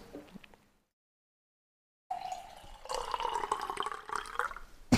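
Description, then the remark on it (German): Water pours from a Brita water filter jug into a glass, a steady splashing stream with a rising tone as the glass fills, after a brief quiet pause. “Nee, Warte, ich also, schenke mir nochmal Wasser nach hier.”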